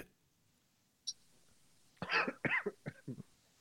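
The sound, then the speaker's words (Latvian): A quick series of about five harsh coughs in close succession, loud, preceded by a brief faint click. “Par klepu dziesmu.”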